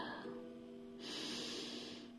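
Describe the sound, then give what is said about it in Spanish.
A long, deep inhalation through the nose, like a slow sniff, taken as if smelling a rose, breathy, swelling in strength partway through and lasting about two seconds with no talking. “Ahora quiero que tengas en mente un olor de alguna rosa que te llegue y vas a dar una respiración como si olieras a esa rosa.”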